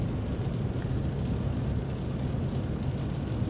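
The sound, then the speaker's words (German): Steady, loud rumble of a Smart electric car on a test drive at full throttle in Eco mode, which limits it to 120 km/h: a constant roar of road and wind noise heavy in the low end, with no voices. “Testfahrt mit einem Elektroauto - Smart”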